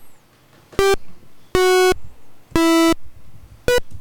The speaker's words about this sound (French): l'intro fait très 8 bits en mode. Euh, C'était dans les premières sonneries de téléphone du 3310 aussi. C'est vrai.